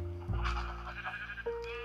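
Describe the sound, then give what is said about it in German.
A sheep bleats in a video game, a loud, drawn-out wavering cry that shifts pitch partway through, with a second bleat rising near the end. No voices are heard. “Ah, das Schaf ist mal wieder fertig. Ah, ich gehe hier mal wieder weg. Es ist mir viel zu laut hier.”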